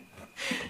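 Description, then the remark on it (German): A single sharp sneeze bursts out: a short breathy intake, then a loud, hissy expulsion that fades quickly. “Gesundheit.”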